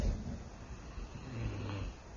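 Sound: person imitating snoring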